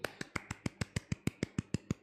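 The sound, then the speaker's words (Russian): A single pair of hands clapping quickly and evenly, about a dozen sharp claps in a steady rhythm, clear with no one talking, applauding a couple being congratulated on their wedding. “Молодцы, похлопаем им в ладоши.”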